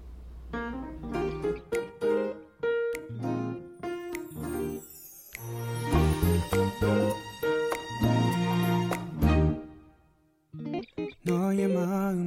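A Korean pop ballad plays, with sustained melodic instrumental tones and rich harmonies at a steady moderate volume. There is no evident singing, and the music briefly drops out near the end before resuming.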